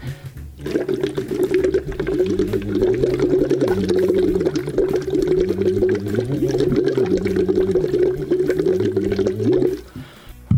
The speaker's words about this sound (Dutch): Eh, ik ga even bubbelen, want dat heb ik geleerd van mijn uh, zanglerares. En dat zal ik je even voordoen.